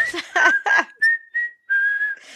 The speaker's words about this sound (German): aber die war so unheimlich gewesen. Die ist ja ich, eigentlich auch richtig ja. bekannt. Ich, ich hab sie. Ich, ich kann sie ja mal vorpfeifen.